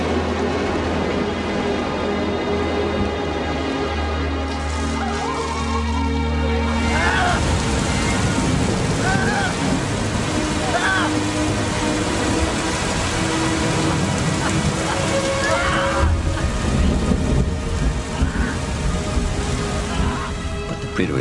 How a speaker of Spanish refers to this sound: Hacía sol, pero se desató una tormenta. Los comensales cogieron sus platos y salieron corriendo, huyendo de la lluvia y los truenos.